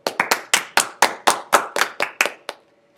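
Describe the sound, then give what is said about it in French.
Steady, rhythmic hand clapping for a guest being introduced, about a dozen crisp claps in quick succession, fairly loud, then it stops abruptly and goes quiet. Nobody speaks. “Je vous présente Monsieur Hartmann, applaudissez-le s'il vous plaît.”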